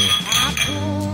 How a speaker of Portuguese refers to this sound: vamos brindar, né, antes de tomar? Ah, é, nós vamos. não brindamos. Saúde!